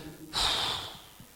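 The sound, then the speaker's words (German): A single deep breath rushes in loud and airy with a faint whistling edge, then fades out gradually over about a second, with no talking. “Und wenn ihr jetzt einschnauft, schaut einfach schnell, dann fahrt ihr da rauf.”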